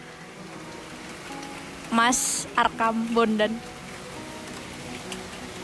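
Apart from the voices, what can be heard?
heavy rain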